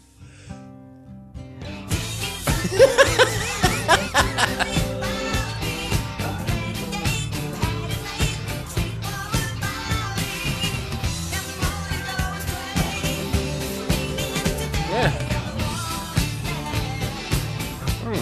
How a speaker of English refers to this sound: kind of, sounds, kind of sounds like yacht rock.